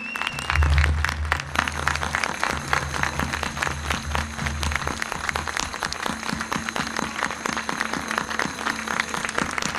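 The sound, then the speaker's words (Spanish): A large audience at a Mass applauds loudly and steadily for the Virgin Mary, dense rapid clapping for the whole stretch, with a low rumble at the start and no voices standing out. “el aplauso para María, fuerte, fuerte.”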